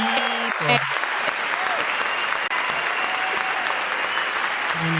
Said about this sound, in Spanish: Oye, un fuerte aplauso